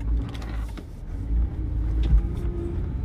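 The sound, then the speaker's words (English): A car engine idles and rumbles, with a low steady drone and small shifts in revving as the car slowly edges and maneuvers out of a tight spot in a crowded parking area to turn around, waiting for a truck to pass. No voices present. “okay, had to get out of this tight ass spot, y'all. It's kind of crowded. And I gotta turn around, so I'm waiting for this bitch ass truck to go.”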